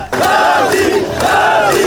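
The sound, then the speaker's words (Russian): Hundreds of fans greeting returning Olympic champions, including two-time Olympic champion Abdulrashid Sadulaev, roar and chant loudly, voices rising and falling together in rhythmic waves of cheering without a break. “А на выходе чемпионов ждут сотни фанатов. Теперь уже двухкратный олимпийский чемпион Абдулрашид Садулаев вызывает бурю эмоций.”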